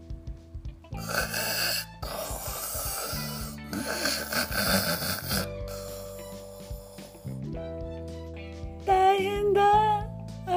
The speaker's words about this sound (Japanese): 狼は次にクッキーをむしゃむしゃぶどう酒をごくごくういああ酔っ払ったすっかり酔っ払った狼はやがて大いびきをかいて眠り始めたのです